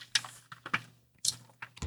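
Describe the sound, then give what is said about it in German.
Close-up rustles of magazine pages being flipped, several crisp papery swishes at an irregular pace with short quiet gaps between them, and no one talking. “ich habe jetzt tatsächlich auch das Heft mal hier vorliegen und kann mal hier so ASMR-mäßig mal blättern.”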